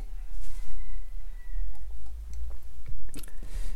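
Someone takes a quiet sip of hot coffee, with small wet mouth clicks and a soft swallow over a low background rumble; no one speaks.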